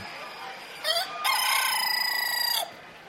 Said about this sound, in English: I have here a cockbird. That means he's more than a year old. He's a Dorking breed, and he's a silver gray variety. That's the color pattern. He's a very gentle bird.